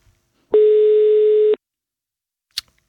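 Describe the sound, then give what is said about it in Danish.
One steady electronic ringback tone of a phone call to the caller's father sounds for about a second, clear, followed by silence and a brief faint click. No one speaks. “Så lad os prøve at give et kald først. Det er simpelthen til min far.”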